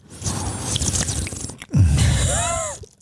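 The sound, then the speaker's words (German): Wet slurping of 2019-vintage wine from a glass in two loud drawn-out pulls separated by a brief pause, the second ending with a few squeaky rising-and-falling tones. “Ein lüsternes Schlürfen, da ist auf jeden Fall Emotion.”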